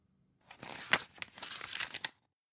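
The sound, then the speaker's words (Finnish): Paper rustles and crinkles for under two seconds, fairly quiet, as pages of a child's fifth-grade environmental studies textbook are flipped in quick succession, with no voices. “Selaan lapsen vitosluokan ympäristöopin kirjaa.”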